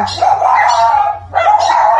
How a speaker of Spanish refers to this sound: pues les pido perdón porque acaba de pasar un perrito que ha alborotado a mis perros a ladrar.